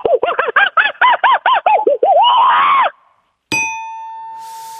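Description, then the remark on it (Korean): A voice imitates a monkey that is passing by, hears a gunshot and flees in a hurry: a rapid run of about nine high, hooting screeches rising into a longer wail, then a pause and a sharp bang for the gunshot that rings on with a steady metallic tone. “아, 원, 원숭이가 지나가다가 총소리를 듣고 급하게 도망가는 모습이죠.”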